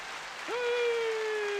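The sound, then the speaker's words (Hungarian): A canned applause sound effect played from an applause button: dense, crackling clapping throughout, joined midway by a rising whistle-like tone that settles into a steady sustained note. No one speaks. “Viszont megtartom a tapsgombot, tessék.”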